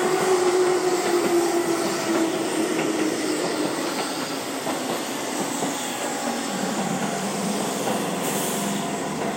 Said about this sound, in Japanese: ちょっと電車の音が入りますね